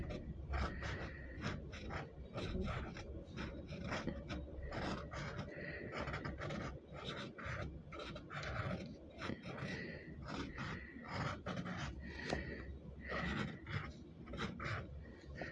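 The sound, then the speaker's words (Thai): Continuous scratchy rasping of a fountain pen moving across paper while drawing a rose, with quick irregular strokes and brief pauses, heard alone without talking. “เสียงกระดาษเป็นแปลกๆมันเป็นเสียงเอ่อกระดาษเอเขาเรียกอะไรอ่ะไอไออีเนี้ยอีปากกาหมึกซึมอ่ะเออมันกระทบนะคะมันกระทบกับเสียงของกระดาษนะคะ”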